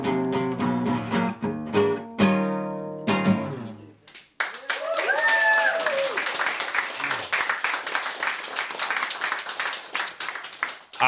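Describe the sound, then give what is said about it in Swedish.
The choir from Älvsjö ends its final sung chord, then a large audience breaks into sustained, dense applause for several seconds, with a few whoops rising above the clapping. “Applåder för … från Älvsjö.”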